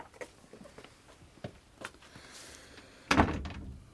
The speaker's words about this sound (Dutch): En doe de deur dicht.